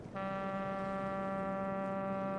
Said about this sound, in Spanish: están escuchando el famoso registro del puerto de Vancouver. Forma parte del World Soundscape Project, un proyecto mundial que tiene como fin el registro de los paisajes sonoros actuales